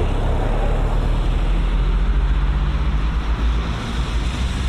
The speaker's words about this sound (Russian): Вот проехал мимо нас автобус.